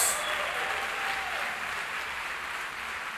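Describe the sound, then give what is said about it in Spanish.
A church audience applauds the Lord, the King of Kings, steadily, a dense, sustained wash of clapping that stays loud and even throughout, with no voices rising above it. “Fuerte ese aplauso al que vive por los siglos.”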